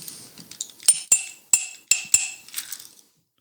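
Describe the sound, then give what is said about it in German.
A short sequence of metallic percussive hits, about five sharp clanging strikes in a syncopated rhythm, each ringing briefly, heard alone, like a movie theme tapped out on metal. “Das soll ein Signal jetzt sein für dich, aber du kommst nicht drauf. Der Fitz auch nicht. Wahrscheinlich Terminator. Ganz genau.”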